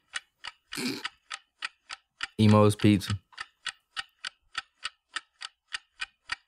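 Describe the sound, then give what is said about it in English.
A game show countdown clock ticks steadily at a brisk, even pace, sharp, timing 30 seconds. Near the start comes a brief breathy burst, and a voice cuts in briefly while the ticking continues. “30 seconds on the clock. Ready, set, go.”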